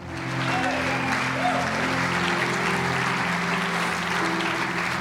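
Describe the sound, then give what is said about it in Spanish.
An audience applauds steadily, the clapping building quickly and holding at a dense, even level, with a low sustained musical drone and faint voices underneath. “Vamos, aplauda.”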